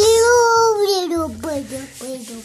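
A young child babbles in a high, sing-song voice, the pitch sliding downward across a couple of drawn-out vocal sounds with no clear words.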